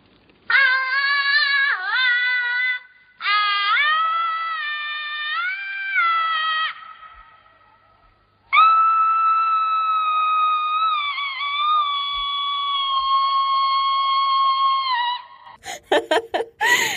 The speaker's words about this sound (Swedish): här är ett skrik där man tagit bort all aggressivitet.